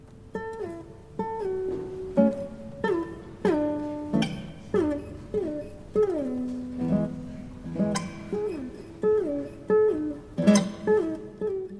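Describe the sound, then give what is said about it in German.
A solo guitar plays a slow, slightly wobbly tune, each plucked note ringing out with sliding pitch bends, giving a loose, lazy, tipsy feel. No voices. “hat das Lied für Gitarre bearbeitet und da klingt es, als wären die ganzen Karnevalsmenschen schon ein bisschen betrunken oder müde oder beides.”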